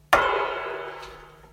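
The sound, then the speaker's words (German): A single open hi-hat strike on a drum kit, fairly loud, ringing out in a bright metallic wash that slowly fades over about a second and a half, with no one speaking. “Oder offen kann man sie so spielen.”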